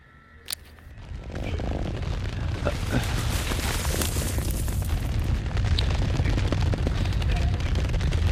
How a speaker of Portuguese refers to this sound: E vocês escutam que uma enxurrada de pedra fecha a passagem.